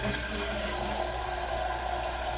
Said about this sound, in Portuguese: Agora vem a água. Vamos deixar, deixa a água rolar agora nesse